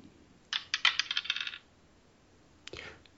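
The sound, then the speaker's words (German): Dice clatter and tumble across a hard surface in a quick rattling burst of about a second, followed by a shorter, softer clack a moment later. No one speaks. “Äh, wir legen los, würde ich sagen, äh, und würfeln.”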